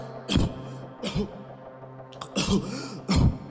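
A fit of harsh, raspy coughing: about four or five loud bursts spaced unevenly over a few seconds, with brief quiet gaps between them and no speech.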